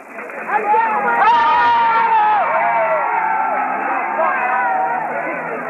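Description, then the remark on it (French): A large crowd of at least 2000 people outside a courthouse roars and murmurs continuously, a dense wall of many voices with occasional shouts and rising cheers rolling through, loud throughout. “Dehors, une foule d'au moins 2000 personnes grondait.”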